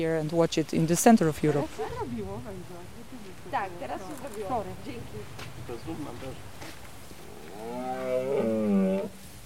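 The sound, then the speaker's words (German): Red deer stags roar during the rut on an evening in a European wilderness, a loud groaning bellow at the start and another drawn-out call near the end, with quieter moaning calls in between against an open outdoor background; the calls carry for kilometres to surrounding villages. “Die Rothirsche lassen sich blicken. Ihre Brunftrufe sind kilometerweit zu hören, bis hinein in die umliegenden Dörfer.”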